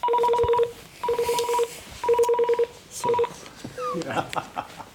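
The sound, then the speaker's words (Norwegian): A rescue call-out alarm for the crew of a Sea King rescue helicopter at Rygge sounds in four repeated bursts of steady two-tone electronic beeping, each about half a second to a second long, followed by a brief rising wail and clatter. “da har altså alarmen gått til Sven Kristiar, og han må brått forlate podkasten vår for å rykke ut på et redningsoppdrag”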